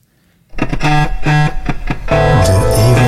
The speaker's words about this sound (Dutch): Hey, we hebben een eh, rubriek die heet de Eeuwofoon. Ja. Daar heeft Ipe een jingle voor gemaakt. Die klinkt zo.